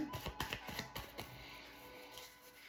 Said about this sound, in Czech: A já už se dívám na vaši fotku, míchám u toho karty a my se spolu podíváme, co nám Tarot poví o vašem budoucím partnerovi.